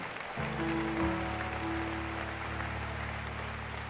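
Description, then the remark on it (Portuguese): A church audience claps steadily throughout in praise of the Lord during a celebration of 30 years of ministry, a dense wash of applause, while sustained low keyboard or organ tones hum underneath. No one speaks. “Vamos adorar ao Senhor com palmas.”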